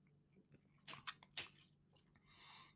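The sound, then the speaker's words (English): Someone takes a sip of blueberry wheat ale, with a few quiet slurping and wet clicking sounds followed by a soft hissy exhale, no one speaking. “I'm gonna take another sip.”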